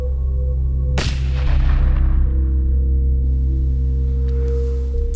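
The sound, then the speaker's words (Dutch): A single sharp, loud pop of a balloon bursting as it is pierced, followed by a fading rumble over a steady low hum, with no voices. “Totdat ik opeens dacht: ik heb niet gezegd dat die ballonnen knallen als je ze kapot prikt.”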